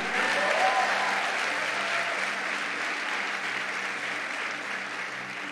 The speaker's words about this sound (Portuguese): Tem alguém do Diamantes aí? Levanta a mão. Vamos dar uma salva de palmas aqui para essa galera. Os nossos heróis na fé. Aplauda bem forte a eles.